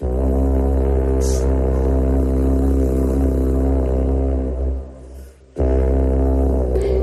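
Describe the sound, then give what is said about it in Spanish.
A deep, blaring Celtic carnyx war trumpet, the kind sounded before going into battle, gives a long, loud, sustained blast, briefly breaking off near the end before roaring back in, with no voices present. “Bueno, en otras obras aparece el Carnix, una trompeta celta que se tañía antes de entrar en combate y este es su espectacular sonido.”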